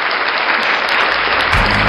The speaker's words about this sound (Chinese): 我说的可能这个导播来点掌声得了。